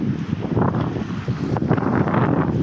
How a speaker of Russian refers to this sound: У нас ветрено.